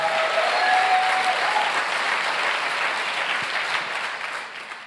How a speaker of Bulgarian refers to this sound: Някои от вас ръкопляскат, обаче и се оглеждат. Кой ме гледа, че пляскам?